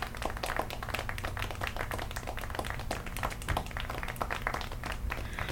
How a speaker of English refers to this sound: So let's give a round of applause for Tanqueray.